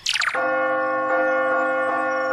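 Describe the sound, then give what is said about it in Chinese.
A bell, rung through a remote bell-ringing app, rings with a bright, sustained metallic tone that keeps humming. After a quick descending jingle at the start, it is struck again several times at a steady pace. “我最爱这个遥控敲钟 App。”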